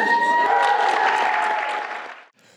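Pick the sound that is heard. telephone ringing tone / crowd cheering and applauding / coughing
crowd cheering and applauding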